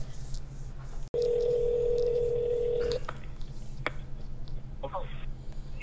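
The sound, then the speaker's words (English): A phone call connects with a steady electronic tone lasting about two seconds, followed by a few brief clicks and beeps, over a low background hum. “Phone a father. Phone a father.”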